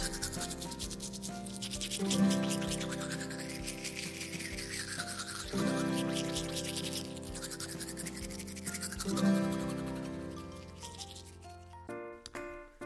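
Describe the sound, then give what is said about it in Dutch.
Steady, rhythmic scrubbing as two boys brush their teeth with toothbrushes in front of a mirror at a washbasin, fairly loud, in three repeating swells over a bed of tonal background music. “Joep en Klaas staan voor een spiegel en poetsen dat het een lieve lust is.”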